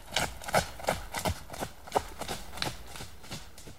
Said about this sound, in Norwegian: Etter å ha stiftet nærmere bekjentskap med hest og teknikker, var det på tide å starte moroa. Først med litt grann trav.